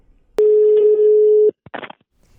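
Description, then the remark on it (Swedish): A single loud telephone ringing tone of an outgoing call holds steady for about a second, then cuts off, followed by a brief rustling click as the line seems to pick up. “Jag tycker vi gör så att vi ringer upp han helt enkelt och frågar.”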